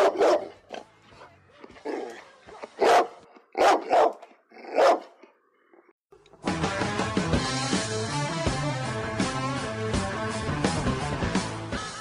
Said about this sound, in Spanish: Un perro negro ladra en tu muelle.